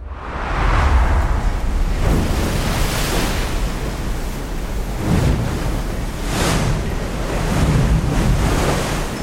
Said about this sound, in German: Und es begann mit einem heftigen Sturm.